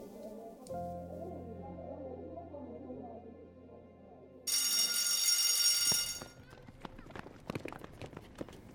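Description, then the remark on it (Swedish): A school bell rings loudly and shrilly for about two seconds for break, a steady metallic clang, after low murmuring. Then a clatter of running footsteps and scraping follows as children run out of the classroom. “Klockan ringde för rast.”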